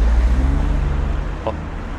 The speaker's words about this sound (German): kurz warten, bis die Autos hier durch sind.